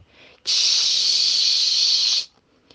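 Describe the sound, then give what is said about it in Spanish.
Rain begins with a sudden, steady hissing rush that holds evenly for nearly two seconds, then cuts off abruptly. A fainter patch of hiss comes just before, and there is no talking. “Esto pensaba el abejaruco cuando de pronto comenzó a llover.”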